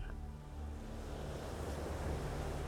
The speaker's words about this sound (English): and gaze out over the wonderful turquoise water as the waves roll in and you begin to really relax now.